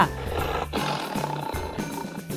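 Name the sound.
jaguar roar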